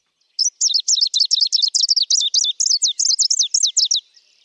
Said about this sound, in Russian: Звонкие свистовые ноты часто повторяются по два раза подряд. Звучание песни «Зеленой пеночки» часто сравнивают со звуком трения пальца о стекло – Еще ее сравнивают с футбольной кричалкой вследствие ее торопливости и ритмичности.